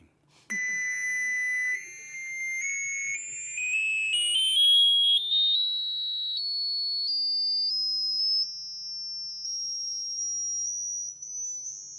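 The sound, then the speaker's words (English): A steady electronic sine test tone starts abruptly and glides continuously upward in pitch, climbing past 2,000 hertz toward 6,000 hertz, from a high whistle into a piercing shrill tone at a constant loudness, with no voices. “2,000 cycles per second. It's getting way up there.”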